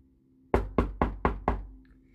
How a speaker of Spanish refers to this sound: Imagina que un niño golpea la puerta de tu casa.